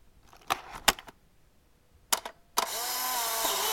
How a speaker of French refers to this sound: Un Polaroid.